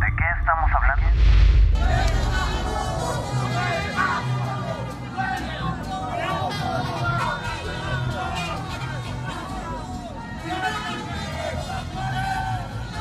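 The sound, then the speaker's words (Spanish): A loud crowd of supporters shouts and cheers "No estás solo" over mariachi music on a Thursday morning outside the Instituto Cultural Mexicano in Washington, greeting President Andrés Manuel López Obrador on the balcony, voices and instruments blending into a dense, continuous din, with a heavy low thump near the start. “Así empezó la mañana del jueves, con mariachis y gritos de No estás solo, mientras el presidente Andrés Manuel López Obrador, sonriente, saludaba y arrojaba abrazos a los simpatizantes desde el balcón del Instituto Cultural Mexicano en Washington.”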